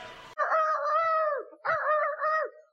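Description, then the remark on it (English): A man's voice imitates a rooster crowing during a professional wrestling announcement, loud, in two drawn-out, wavering calls separated by a short pause, following a brief burst of noise. “The Red Rooster is going crazy. He's so excited.”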